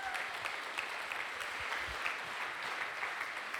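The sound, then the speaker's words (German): Steady audience applause for two brave women, a dense wash of many hands clapping at an even loudness for several seconds with no voices over it. “Genau, ihr beiden kommt schon mal Applaus für die mutigen Damen.”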